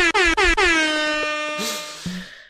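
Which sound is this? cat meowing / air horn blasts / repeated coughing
air horn blasts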